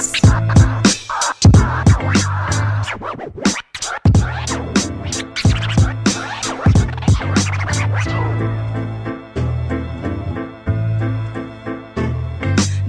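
A hip hop intro with turntable scratching cutting over a steady, punchy beat and deep bass, loud, with no vocals yet.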